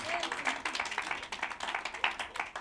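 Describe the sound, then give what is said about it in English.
A crowd claps for God steadily and densely, with many hands overlapping into a continuous, fairly loud patter, while scattered voices call out underneath. “Come on, give God a clap of shout right there.”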